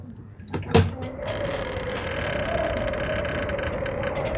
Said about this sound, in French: Hein ah, la porte s'ouvre.